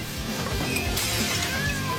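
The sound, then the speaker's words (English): A crowd of cats meowing over a busy clatter of objects being knocked about, with one sharp crash midway; the commotion is steady, close and fairly loud throughout. “they're gonna sound the buzzer again here in a second, and these cats are gonna all run in.”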